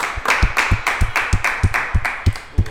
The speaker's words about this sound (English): Everybody clap it up